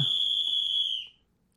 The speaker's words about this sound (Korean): 갑자기 저쪽에서 호루라기 소리와 함께 경비 아저씨 한 분이 뛰어오시는 겁니다